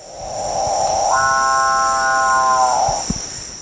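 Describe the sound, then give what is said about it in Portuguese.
A capuchinbird gives one loud, drawn-out mooing call lasting almost three seconds, rising slightly then holding steady, over a constant high-pitched buzz of insects in the background. “É, o pássaro-boi também conhecido como maú, que é uma onomatopeia para descrever esse canto que vocês estão ouvindo aí agora, bem forte, é, que a gente pode ouvir principalmente na Amazônia, uma espécie da Amazônia que habita as copas das árvores.”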